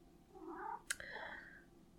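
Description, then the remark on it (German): A cat in the room meows in two drawn-out, wavering calls, the second slightly longer, with a short sharp click between them and no voices. “Die Katze müssen wir vielleicht rausschneiden.”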